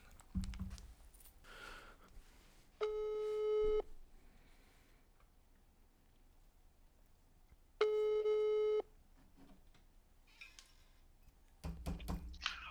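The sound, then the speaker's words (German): Two long electronic ringback tones of a call to a mother's mobile phone, each about a second, sound about four seconds apart over a quiet line, with faint rustling and brief noises before and after. “das ist witzig, dass ich jetzt gerade auf dem Handy von meiner Mom anrufe und dich dran hab”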